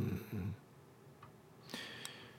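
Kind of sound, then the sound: human body sound, snoring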